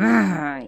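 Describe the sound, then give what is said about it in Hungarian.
A single short, guttural growl made by a human voice voicing Mindent ragasztó Rezső, a glue character in a Gombóc Artúr story, imitating a menacing snarl; fairly loud, sustained for a moment before fading, with no other sounds around it. “Ilyen-nappal ragasztok, hörgött és berregett Rezső félelmetesen.”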